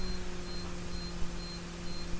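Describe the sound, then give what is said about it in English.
A faint, high-pitched electronic beep repeats at a steady pace, roughly twice a second, over a low background hum. No one is talking. “Oh, something's beeping.”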